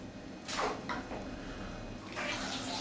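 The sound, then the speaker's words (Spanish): Muffled, rushing water sloshes and gurgles continuously, with surges of bubbling turbulence as though heard from beneath the surface, fairly loud and steady throughout. “escuchar abajo del agua si quieres?”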